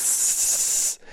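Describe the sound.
A voice imitates a gust of wind as a tumbleweed, a dead bush, passes by: one steady, breathy hiss held for about a second, fairly loud, before it cuts off abruptly into near silence.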